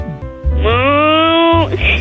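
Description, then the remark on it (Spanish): A single sustained vocal moo, made by a person imitating a cow, held steady for about a second before trailing off, fairly loud with low background rumble. “¿Puedes hacer el ruido de una vaca?”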